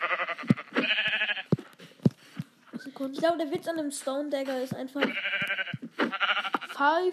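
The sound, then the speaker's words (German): Several short, buzzy video game sheep bleats break out in separate bursts, loud, as the sheep is struck with a sword, interleaved with a man talking casually throughout. “Okay, mal gucken, wie viel Damage das auf den Schaf hat.”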